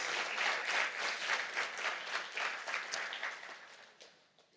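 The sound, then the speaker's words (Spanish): A church audience applauds the Lord together, a dense, sustained wash of many hands clapping, steady for several seconds before gradually thinning and fading out near the end. “Dale un aplauso al Señor si tú lo crees.”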